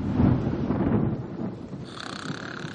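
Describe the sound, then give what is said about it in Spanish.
A deep rolling rumble of thunder from a night-time storm over a small island in the middle of the sea dominates the first second and a half, fading into a steady hiss of rain and wind with no voices. “Hay tormenta.”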